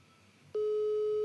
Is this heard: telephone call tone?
yes